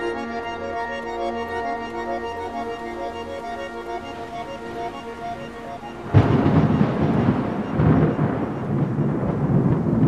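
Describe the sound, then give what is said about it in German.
A soft, sustained musical drone gives way around six seconds in to a sudden loud thunderclap, followed by a steady roar of heavy rain and rumbling storm noise: a heat thunderstorm at night with a downpour and strong wind gusts. “Wärmegewitter, Platzregen und starke Windböen lassen die Menschen kaum zur Ruhe kommen.”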